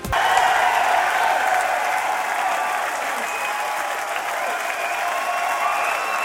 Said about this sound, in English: Anyway, yeah, it was a fabulous show. And while I was there, I recorded this applause.